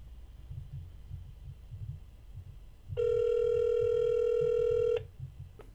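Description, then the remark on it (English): A single steady electronic ringing tone from an outgoing phone call sounds for about two seconds, loud and clear, over a faint low rhythmic throbbing in the background. “I'm gonna try to call”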